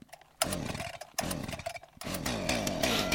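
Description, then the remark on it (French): A chainsaw-like engine revs in three loud bursts, each roaring up with a harsh buzzing whine before dropping back, the last burst sustained and climbing to the end. “Dites donc, il fait un drôle de bruit votre engin là oui, oui, tout cela est normal, ne vous en faites pas, c'est le moteur qui chauffe.”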